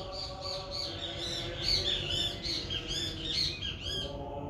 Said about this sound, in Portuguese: Obrigado, pássaros. Irmão passarinho, irmã passarinha.